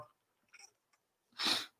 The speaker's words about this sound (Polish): jakbym tu kichnął, to byłaby demolka całkowita.